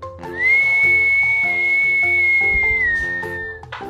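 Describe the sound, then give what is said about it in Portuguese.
A single long, steady whistle held for about three seconds, dipping slightly in pitch near the end, sounding clearly over a rhythmic musical backing. “Se falam saci, você sente um arrepio e escuta um assovio.”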